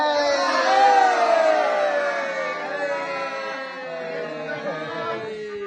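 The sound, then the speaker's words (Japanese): A group of voices on Yoron Island shouts the toast 'kanpai' together in one long, loud, sustained cheer that holds steady for several seconds before gradually tapering off. “ミッシークトートガナシ。乾杯”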